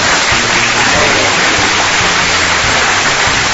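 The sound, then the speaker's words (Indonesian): Loud, steady applause from many hands fills the whole stretch, a dense continuous patter with some voices faintly mixed in underneath. “dua tahun dua tahunan ini tepuk tangan dulu dong buat sob apa sih tangan tepuk tangan”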